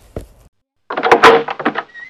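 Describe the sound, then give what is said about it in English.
A bedroom door bumps shut with a soft thud, then a clattering rattle of its lock being worked, ending in a brief squeak. No voices. “Carefully locking the door behind him,”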